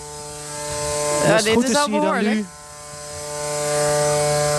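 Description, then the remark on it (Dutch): A steady mechanical hum of a desalination system's seawater feed pump starting up, with a strong tonal buzz throughout, rising in level near the end as it spins up. A man speaks briefly over it partway through. “ondertussen gaat de, de aanvoerpomp een hoop lawaai maken.”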